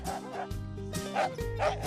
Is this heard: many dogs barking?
yes